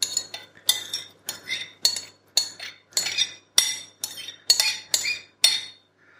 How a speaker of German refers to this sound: So, und wie ihr euch schon gedacht habt, gebe ich jetzt die gesamte Mischung zurück in die Pfanne.